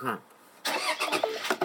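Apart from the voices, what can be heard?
car engine starting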